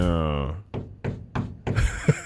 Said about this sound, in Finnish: Joku koputtaa oveen.